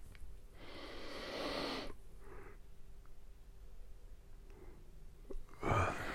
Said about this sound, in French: toujours toujours que je baille de toute façon.